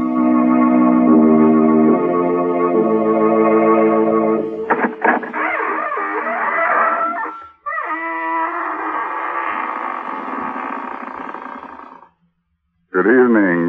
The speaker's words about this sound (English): This is your host, …, welcoming you through the squeaking door.